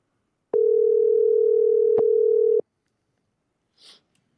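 A single steady telephone ringing tone hums for about two seconds, clear, then stops as a phone call is being placed; a brief faint higher-pitched blip follows in the silence. No one speaks.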